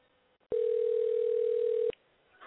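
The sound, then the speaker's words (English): A single loud, steady ringback tone on a phone line during an outgoing call to a caller on a live on-air show, one sustained beep lasting over a second with sharp start and stop, surrounded by quiet line hiss. “I don't know if y'all can hear the ringing, but it's really loud.”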